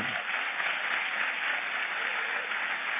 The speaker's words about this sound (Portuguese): É honra de Deus. Pode aplaudir o Senhor.